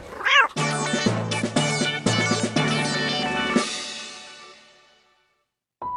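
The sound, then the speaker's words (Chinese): A single short, wavering cat meow opens, quickly giving way to a loud run of sustained musical chords that gradually fade into silence, followed by a brief steady tone at the end. “你好，先生，不好意思，你的猫不能带进去哦。”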